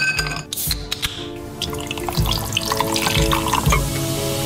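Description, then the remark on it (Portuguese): A carbonated drink pours into a glass with a bright, fizzy crackle and irregular splashing drips, steady for a few seconds, with no voices. “Calhou o nome dele soar a bebida gaseificada a cair no copo, embora soe mais assim quando é dita em inglesa, Schweppes, porque a versão original devia dizer Schweppe.”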